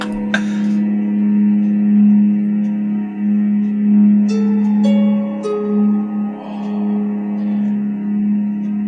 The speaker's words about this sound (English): Is that a guitar? I think so. Nylon. Like this music right here, with the wind sound in the background.